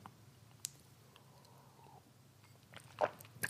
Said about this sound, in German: Entschuldigung, ich glaube, ich muss noch mal einen Schluck Wasser trinken.